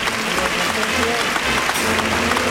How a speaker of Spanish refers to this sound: Sale a saludar la ovación del público Pepe Moral de Catafalco y Bordado en Plata.